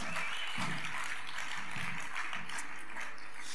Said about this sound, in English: So if you believe we're heading for a new era, come on, give the Lord a great clap, give him praise.